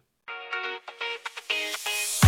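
A short instrumental intro of a newly composed song: bright, bell-like synth notes play a quick melodic phrase at moderate volume with no voices, ending in a sudden low thump.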